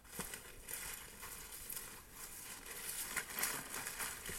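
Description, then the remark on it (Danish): Soft, continuous rustling and crackling as someone walks around a yard through vegetation, touching plants, with a few scattered brushing steps against leaves and stems. Quiet, with no voices. “Man kan høre en rør ved nogle planter på en eller anden måde.”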